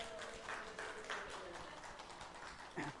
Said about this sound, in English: You should give her a big round of applause right now.